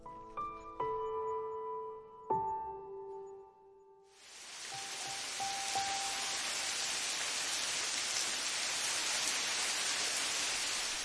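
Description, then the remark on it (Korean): A few soft bell-like tones ring and fade, then a steady, dense hiss of heavy pouring rain swells in and continues loudly to the end, with no voices. “그리고 얼마 뒤 주룩주룩 비가 오던 날 엄마 청개구리는 세상을 떠나고야 말았지요.”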